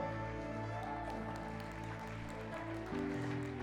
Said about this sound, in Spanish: Y, el aplauso no es para mí. Si es para mí, denlo sin ganas. No, si el aplauso es para Él, dalo con excelencia.